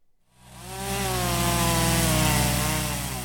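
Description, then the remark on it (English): A chainsaw revs up from quiet and holds a loud, steady buzzing drone as it cuts trees downed by a storm in Valdosta, Georgia, its engine pitch wavering slightly, with no one speaking. “There's always chainsaws once a storm like Idalia moves out, but once the city of Valdosta clears the roads, it gets quiet.”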